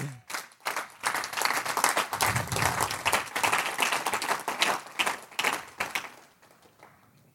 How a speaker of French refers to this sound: Ah oui, vous devriez, vous devriez applaudir.